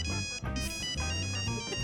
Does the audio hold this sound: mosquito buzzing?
no